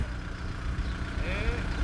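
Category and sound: vehicle, car engine idling nearby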